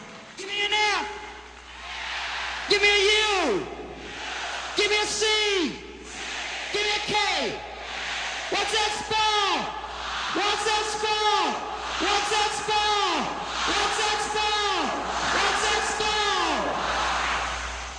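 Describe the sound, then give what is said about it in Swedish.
A live audience, asked by the performer at the start of a song, shouts a swear word in unison: loud rhythmic chant-like bursts repeated about eight times, roughly every two seconds, many voices blending together. “han, han ber publiken skrika ett fult ord i början.”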